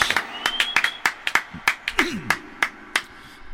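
Brief, scattered applause at a press conference with the President of Mexico: a small group clapping in sharp, uneven bursts for a few seconds, with faint murmuring voices beneath the claps.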